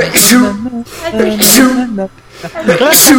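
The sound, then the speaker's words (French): Three loud, sharp sneezes spaced about a second apart, each a sudden airy burst, set among voiced, sing-song vocal sounds. “et pour vous dire, et le fil éternuera toujours trois fois.”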